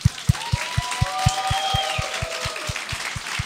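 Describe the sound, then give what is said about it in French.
An audience applauds, a dense wash of clapping layered over a steady, fast thumping beat and a few sustained tones, all at moderate volume. “Donnez-y une bonne main d'applaudissement”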